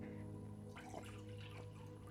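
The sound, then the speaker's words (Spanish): Someone drinks water: a few quiet sips and swallows with faint liquid sounds over a steady low hum, and no one speaks. “Básicamente, a ver, voy a beber un poco de agua que se me está secando la garganta.”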